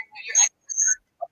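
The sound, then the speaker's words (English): Short bursts of garbled, tinny voice audio repeating over a live stream, with a hollow, echoing quality and brief silent gaps between the fragments. “Yes, we can hear you. You're echoing.”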